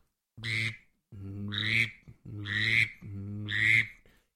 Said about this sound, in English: You'll hear that once in one call by a female mallard, and then you'll hear that male mallard.